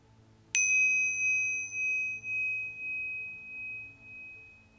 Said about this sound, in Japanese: で今からこの鐘の音が鳴ったらスタートになりますのでご自分の呼吸に意識を向けてみてください。